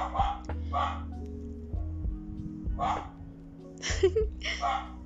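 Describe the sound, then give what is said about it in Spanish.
A dog barks in a handful of sharp, irregular bursts, some in quick pairs, moderately loud over a steady low hum. “Voy a ponerle pausa mientras ladra.”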